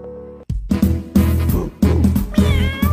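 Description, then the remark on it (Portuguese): A cat meows over a loud, steady musical backing in the opening jingle of the Pet Papo Animal program, with several short meows in a row and a longer, wavering meow near the end. There is no talking. “Au, au, Miau, miau, está no ar, pet papo animal.”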